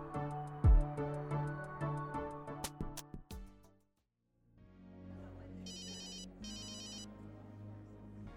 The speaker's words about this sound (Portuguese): Olha, seu telefone já tava tocando faz tempo.